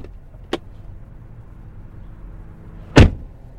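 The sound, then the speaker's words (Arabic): A door of a new car slams shut with a sharp, heavy thud near the end, preceded by a fainter click a few seconds earlier, over a low idling car hum. “ما قلنا بشويش على الباب هي بشويش على الباب”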